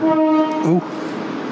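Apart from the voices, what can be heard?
passing train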